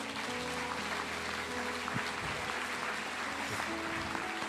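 A crowd applauds God, clapping steadily for several seconds, a dense, continuous wash of applause filling the room, with faint sustained keyboard tones humming underneath.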